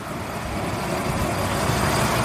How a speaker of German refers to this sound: Wir sind jetzt gerade am Bahnhof und verabschieden uns von meinen Eltern.